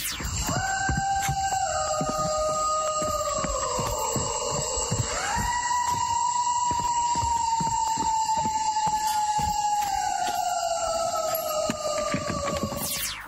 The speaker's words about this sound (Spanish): Escuche esto que pasó en el Parque Nacional de Tikal en Guatemala. Un sonido extraño, un aullido, ¿Ah? un llanto, un berrido. Usted escúchelo y júzguelo.